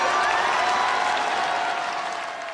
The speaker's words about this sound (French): Dans la région des Marches, arrachée à la gauche en 2020, une foule de 1000 personnes l'acclame.